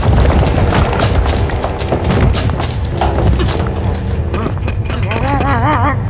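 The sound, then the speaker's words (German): A loud, continuous earthquake rumble heard in a cellar, with deep booming and scattered heavy thuds, while a voice cries out over the din toward the end. “Das, das ist ein Erdbeben.”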